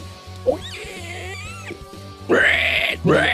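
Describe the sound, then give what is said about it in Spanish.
A person's voice imitates a pig squeal, with two loud, strained, rising squeals near the end over a low steady hum, after some quieter warbling vocal sounds. “Lo, mío trató de ser un chancho, fue terminó siendo un animal muerto, agonizando.”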